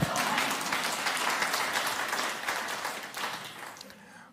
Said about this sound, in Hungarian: Hmm, adjunk egy nagy tapsot nekik.